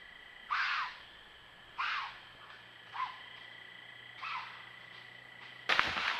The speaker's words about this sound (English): All right, have you found the sound of a deer screaming, Mr. Saunders? Yes, I have. I found it in an amateur video, so I'll just uh, let it rock here a deer screaming.